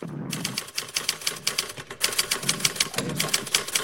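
Rapid, steady clicking of keys on a keyboard, close and fairly loud, with a brief pause near the middle before the fast typing resumes. No voices.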